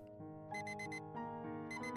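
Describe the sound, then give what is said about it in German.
An alarm clock rings in the morning with a bright, repeating electronic melody, its quick pulsing tones coming in short bursts, steady with no voices. “Als Jackies Wecker am nächsten Morgen klingelte, war Nils nicht mehr im Haus.”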